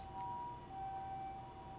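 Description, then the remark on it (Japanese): A faint ambulance siren drifts in from outside as an ambulance drives by again, a steady two-tone wail held for the whole moment, muffled over a low background rumble with no one speaking. “そして、えー、救急車がね、また走っております。”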